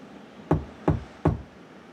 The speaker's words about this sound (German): Na dann lasst uns mal klopfen.